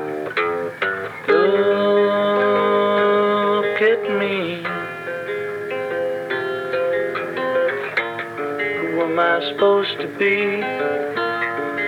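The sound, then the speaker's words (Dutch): A loud demo recording of an old song: a male voice sings sustained, melodic lines over fingerpicked acoustic guitar, the notes ringing steadily beneath the vocal throughout. “Hij had het liggen, dus maar, hij heeft er wel weer een demootje van opgenomen.”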